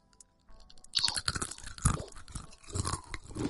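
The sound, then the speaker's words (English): Several people crunch potato chips together on a count of three into microphones, a dense burst of crisp, crackling bites starting about a second in and continuing loud in irregular overlapping snaps. “So we got crunch together on three.”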